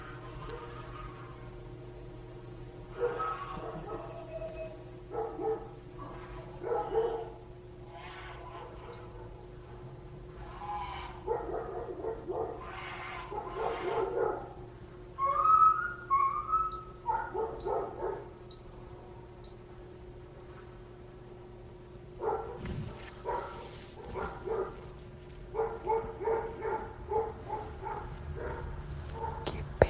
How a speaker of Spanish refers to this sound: Y de pronto empiezan a ladrar los perros de la zona, güey.